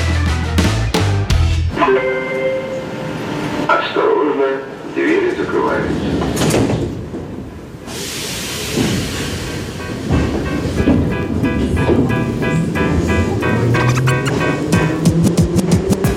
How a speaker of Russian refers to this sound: Метро, час пик, давка. Все куда-то спешат